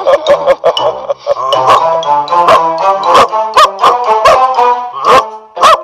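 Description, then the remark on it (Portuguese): A dog barks in a rapid, continuous series of sharp, loud yelps with ringing harmonic tones, about a dozen barks over several seconds and no talking. “se por falar você quis dizer latir, então sim, ele falou.”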